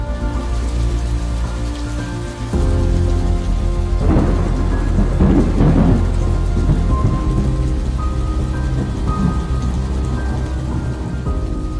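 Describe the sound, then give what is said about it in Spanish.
Heavy rain pours steadily at sea around 10 at night while deep thunder rumbles and swells amid lightning, growing louder partway through with a few sharper crackling bursts. The storm is continuous, with no voices. “Eran como las 10 de la noche, Empezó a llover copiosamente, la noche se llenó de relámpagos, las estrellas desaparecieron y aunque la luna aún brillaba, lo hacía temblorosa e inquieta.”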